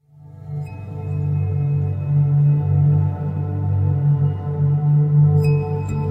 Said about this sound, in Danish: Mor, mens jeg øh, lige nappede en kop kaffe her, mens øh, vi øh, hørte jinglingen her,